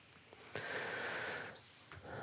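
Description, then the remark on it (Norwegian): A soft, breathy rush of air lasts about a second, followed by a shorter breath, as dancers exhale audibly while performing a dance variation. Quiet, with no talking. “Eh, dere hører eh, kanskje pusten.”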